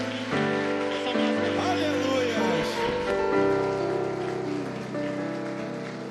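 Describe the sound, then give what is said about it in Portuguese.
An audience applauds the Lord steadily and loudly for several seconds, a dense crackling wash of clapping over sustained keyboard chords, with voices faintly mixed in. “Aplauda o Senhor mais forte, gente.”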